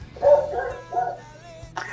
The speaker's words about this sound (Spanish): ¿Qué hemos? Un perro. Es el vecino del frente, vos, es un problema. No, es la la jauría. La jauría.